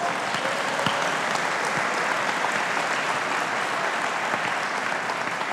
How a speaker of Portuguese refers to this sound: Quem acredita que Deus cuida de você? Quem acredita que Deus cuida de você, aplauda Ele bem forte.